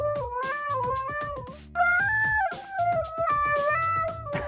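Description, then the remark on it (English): A husky howls and vocalizes in long, loud, wavering tones that slide up and down in pitch, with a short dip in the middle, over a steady pulsing background. “Great video here with a husky.”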